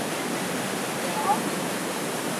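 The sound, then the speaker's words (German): Steady, full rush of water flowing onto an undershot water wheel, driven from below, pours continuously, a broad even roar with no pauses; a brief faint chirp flickers once midway. “Das ist ein sogenanntes unterschlächtiges Wasserrad, weil das von unten äh, angetrieben wird.”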